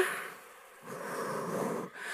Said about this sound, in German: So, jetzt atmen wir mal alle tief durch. Kommen wir wieder runter.